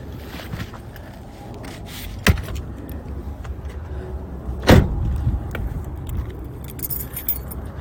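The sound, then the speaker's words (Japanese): Bags being loaded into a car on a cold night: two sharp clunks a couple of seconds apart, with light rattling and jingling between them over a steady outdoor background rumble. “車に着いたので荷物置いて”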